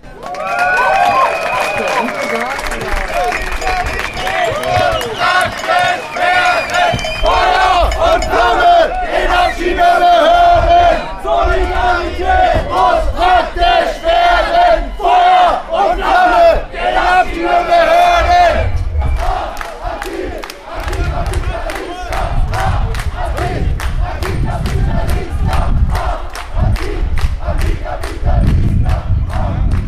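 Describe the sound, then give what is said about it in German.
A large crowd at a demonstration in Berlin against rising rents and evictions chants loudly and continuously in rhythmic unison, voices rising together over a steady din, with sharp percussive beats punctuating the second half. “Demo gegen steigende Mieten und Zwangsräumungen”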